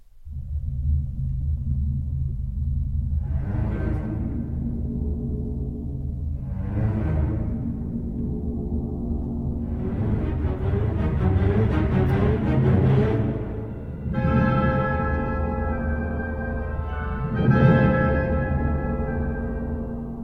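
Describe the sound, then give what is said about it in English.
An orchestral passage with deep, sustained strings underneath and repeated swelling surges, then held wind-instrument chords near the end, steady and fairly loud throughout with no voices. “So are the strings there being wind or sea?”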